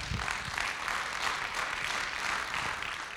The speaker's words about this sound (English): Come on, somebody. Can you give Him a good round of applause?